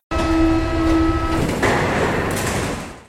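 A metro train rumbles along, an electric motor whine holding steady tones over broad clattering noise before the sound shifts and slowly fades, with no one speaking.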